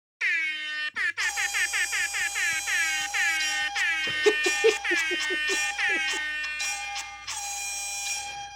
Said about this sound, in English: well, as that air horn and that sonar device that is perhaps a submarine trying to reach its mate in a tunnel?